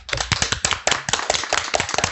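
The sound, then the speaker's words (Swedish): An audience applauds to close the event, a dense, steady patter of many hands clapping at an even loudness throughout, with no voices over it. “Men jag vet inte, ska vi avsluta med en applåd?”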